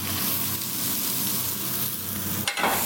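Steady, loud sizzling of precooked crayfish frying in an oiled induction pan, a dense crackling hiss throughout, with a brief clatter near the end as something shifts in the pan.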